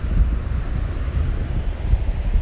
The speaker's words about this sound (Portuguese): Hoje estreando com esse barulho de fundo mais conhecido como mar. Estou aqui hoje na trilha sonora de Celan Sul, curtindo aqui o visual de fim de tarde da maresia, o oceano calmo, tranquilo